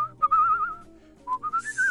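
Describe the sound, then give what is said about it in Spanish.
A person whistles a clear melodic tune, one long sustained phrase followed by a brief pause and a second rising phrase of shorter notes, fairly loud with no talking, linked to Pedro Infante's first recorded whistles in a large recording studio. “Es un estudio de grabación donde Pedro Infante por primera vez hizo sus silbidos.”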